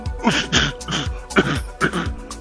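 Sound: voice imitating a cough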